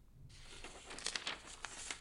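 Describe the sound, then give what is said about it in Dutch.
A copy of Sander's farewell letter crinkles and rustles, starting abruptly and continuing with a run of sharp, irregular crackles as it's handled. No one speaks. “Hier, een kopie van Sanders afscheidsbrief.”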